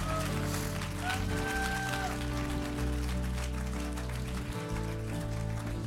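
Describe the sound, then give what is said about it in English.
A crowd claps steadily and continuously in a tent at a church gathering, a dense wash of many hands, with sustained instrumental tones droning underneath throughout. “And if you believe it, come on, would you give him a good hand clap all over this tent?”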